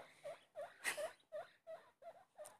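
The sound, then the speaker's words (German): A guinea pig named Popcorn squeaks over and over, about seven short, shrill chirps in a quick steady rhythm, fairly loud, with no one talking. “Popcorn halt einfach nicht die Klappe, das ist so laut, ey. Äh, so laut ist lautes Meerschwein.”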